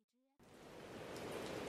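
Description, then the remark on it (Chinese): A brief voice fragment cuts off, then steady rain of the Ethiopian rainy season sets in: a dense, even hiss of countless drops that holds at a constant, moderate level and swells slightly toward the end. “埃塞俄比亚已经进入了雨季，雨水淅沥沥的不停，沙沙的雨声仿佛从宇宙边缘传来，飘渺而悠远。”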